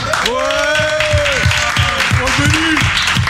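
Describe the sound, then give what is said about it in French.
Audience applause for the sound technician handling the capture of the acoustic live shows fills the whole stretch as a steady wash of clapping, with a couple of long, pitched cheering shouts rising over it. “Pour euh, la captation des lives acoustiques, celui qui va en chier ce soir et on peut l'applaudir, monsieur Benny.”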